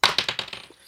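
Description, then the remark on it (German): A die rattles inside a dice cup, a quick run of hard clicks that starts sharp and loud and tapers off over under a second, with no voices. “Also, warte mal, der passt, glaube ich, gar nicht so richtig in den Würfelbecher, oder?”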